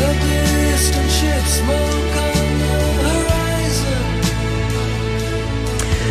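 A stretch of progressive rock plays loud and steady with no talking over it: sustained layered chords over a deep, constant bass, with occasional bright accents cutting through the dense mix.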